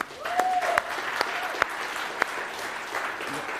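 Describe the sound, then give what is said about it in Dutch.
An audience applauds steadily for a newly announced team, a dense wash of many hands clapping with a few sharper individual claps standing out and a faint whistle-like tone briefly audible early on. “Dus ik wil daar allereerst even een applaus voor.”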